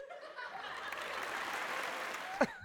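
A short applause sound effect: a burst of crowd applause and light laughter, a dense wash of clapping that stays steady for a couple of seconds, with a brief brighter whoop near the end.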